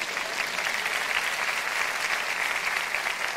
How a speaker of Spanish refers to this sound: Ahora sí, si quieren, aplaudan a Dios.